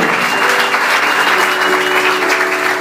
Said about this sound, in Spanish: Dale ese aplauso al Señor, por favor.